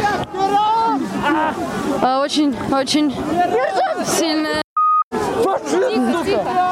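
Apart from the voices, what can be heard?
protest crowd shouting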